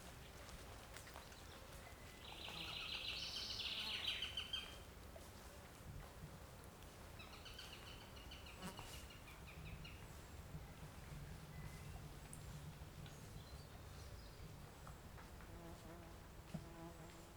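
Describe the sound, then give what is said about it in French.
Insects buzz along the Lilon marsh in the Alpilles regional park, with one loud, high-pitched drone swelling for a couple of seconds early on, then fainter intermittent buzzing over a steady low outdoor rumble. No one speaks. “Beaucoup d’ambiances, des propos murmurés, des oiseaux et insectes discrets, mais bien présents, seront à déceler”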